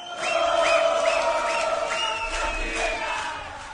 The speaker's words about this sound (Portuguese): Esse canto aí foi da torcida dos Chiefs na vitória do Exeter sobre os Wasps na final da Premiership do Campeonato Inglês neste sábado.